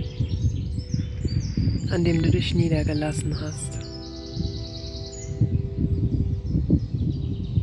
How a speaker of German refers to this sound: Vögel zwitschern im Schilf und den Bäumen, die den See umgeben.